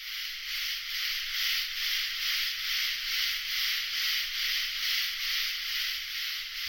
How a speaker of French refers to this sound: Soit ils se synchronisent pour amplifier le volume, comme cet immense groupe de sauterelles,